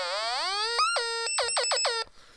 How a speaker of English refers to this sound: I used a thing called a beep it, which is a little uh, kind of noise producer that is light affected. So depending on how much light you shine on it, it makes various sounds.